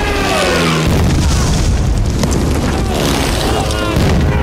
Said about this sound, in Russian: Пролетающие самолеты сбрасывают бомбы, солдаты, не поспевшие укрыться в окопах Пролетающий истребитель пресекает окоп пулеметной точки.